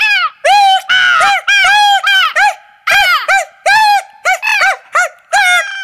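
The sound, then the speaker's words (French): Monkeys screech in a rapid string of loud, shrill, rising-and-falling calls, roughly a dozen bursts with short gaps, frantic, with no talking. “Épouvantés par leurs propres cris, ils se mirent à courir dans tous les sens.”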